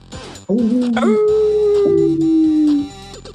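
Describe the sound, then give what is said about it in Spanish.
Drawn-out, wolf-like howling at the moon with several overlapping voices, each rising then slowly sliding down in pitch, loud and sustained for about two and a half seconds before cutting off. “Nos escuchamos la próxima semana y aúdenle a la luna.”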